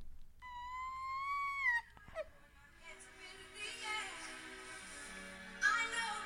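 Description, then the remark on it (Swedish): Hysterical crying played back from a recording: a long, high-pitched wail breaks into choppy, gasping sobs, then rises into another shrill cry near the end, loud, with no clear words. “Och absolut, det, gräts och jag filmade det och la upp det och folk är så ah, tyckte det var kul såklart för att jag är rätt hysterisk när jag gråter.”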